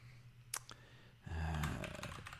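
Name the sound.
computer keyboard typing clicks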